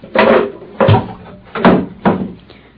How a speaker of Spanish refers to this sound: Voy a arrimar esta silleta.